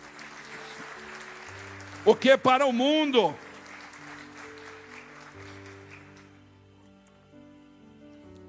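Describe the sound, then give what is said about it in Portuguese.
An audience claps for Jesus steadily for several seconds, a dense patter of many hands, while a man speaks loudly over it; the applause then fades away under his continuing voice. “Você pode aplaudir Jesus por isso.”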